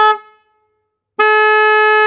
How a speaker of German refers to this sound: Es geht um die Hupe. Naja, fast.